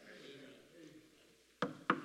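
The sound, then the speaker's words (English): Two sharp knocks on wood, about a quarter second apart, come after a stretch of faint low background murmur. The raps are fairly loud. “He's knocking, he's knocking, he's knocking, in your life.”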